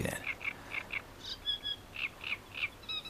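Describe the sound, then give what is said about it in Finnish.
A great reed warbler sings alone, a harsh, rasping series of repeated chattering notes in short bursts, roughly two to three per second, with higher squeaky phrases toward the end. “Mutta tuo karhea laulu, joka kuuluu tyynenä kesäyönä kilometrinkin päähän, tuo mieleen erilaiset karheudet, ärrät, narinat, pärinät.”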